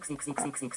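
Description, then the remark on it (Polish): A macOS VoiceOver autofill popup sound, signalling that a card can be used to fill in a payment form: a brief, rapid burst of about five bubbly, croak-like pulses in an even rhythm, moderately loud, with no voices. “I właśnie to jest dźwięk, że jest możliwość skorzystania sobie z wypełnienia formularza kartą.”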